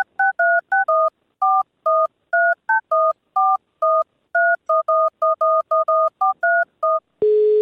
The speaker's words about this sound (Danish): vi prøver lige at ringe op til ham her.